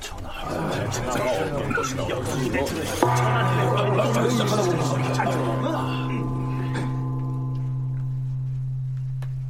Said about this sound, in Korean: 드디어 징소리가 울리고 책제가 발표됩니다.